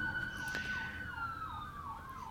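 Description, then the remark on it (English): Emergency vehicle sirens wail continuously outside, one holding a steady high tone while another rises and falls in repeated sweeps, muffled over a low rumble of traffic. “Dude, the sirens are going crazy.”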